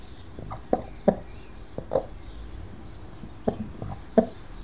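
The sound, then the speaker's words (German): A broody hen, wanting to sit on eggs, makes several short, low clucks spaced irregularly, a pair early on, one in the middle and two near the end, over a soft steady background hiss. “Wenn ihr euch fragt, warum man ein Huhn, was Junge kriegen will, warum man die Glucke nennt, die machen nur dieses Geräusch, dieses Glock, Glock, Glock machen die nur, wenn die brüten.”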